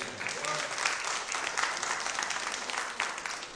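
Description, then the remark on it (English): An audience breaks into sustained, dense applause as a hand of praise to God, many hands clapping at once in a steady wash of sound with no single clap standing out. “Somebody give God a hand of praise.”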